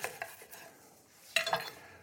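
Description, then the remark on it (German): Fresh ginger being chopped small with a knife for ginger tea, about two to four tablespoons per litre: a few scattered light taps, then a louder, clattery cluster of cuts near the end. No one speaks. “Der wird also jetzt einfach nur klein geschnitten.”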